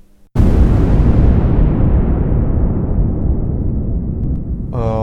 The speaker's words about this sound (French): Et quels ont été les signes concrets euh, de, la guerre Le premier, euh, je, me souviens, euh, c'était une, explosion qui était très proche de, notre quartier.